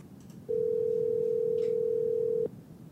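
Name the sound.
telephone dial tone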